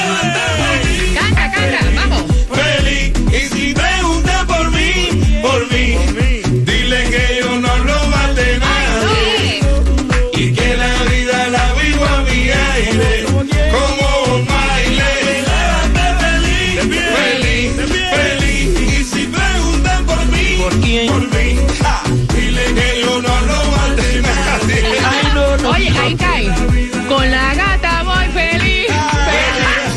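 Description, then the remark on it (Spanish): A song is played in full, loud and continuous from start to finish, with a full band, a steady driving beat and melodic lines over a strong bass, and no one talking over it. “Ahí te la, voy, a, te la voy a tocar completita.”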